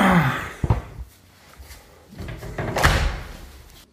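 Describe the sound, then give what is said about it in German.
A recording studio door swings shut with a solid slam, a sharp thud followed by a brief rattle, then a second muffled knock as it settles, with no talking. “Aber was witzig ist, wenn du hier so die Tür zumachst von meinem Aufnahmestudio, mhm.”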